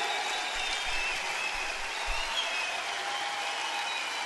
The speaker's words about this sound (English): Clap, clap, clap.